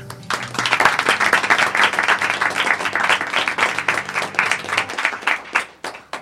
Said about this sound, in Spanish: Hoy, 9 de marzo del 2019, cumplimos 500 programas y nada me puede hacer más feliz que celebrarlo con toda la gente que ha decidido venir al estudio. Un aplauso para todos vosotros, por favor.